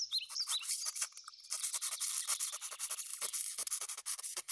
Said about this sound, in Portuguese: Certo dia, estava um leão a dormir à cesta na floresta quando um ratinho começou a correr por cima dele.